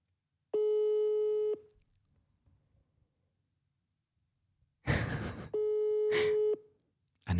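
A steady phone ringback tone sounds twice on an unanswered call to a friend, each ring about a second long with a long silent gap between, and a burst of rustling noise comes just before the second ring.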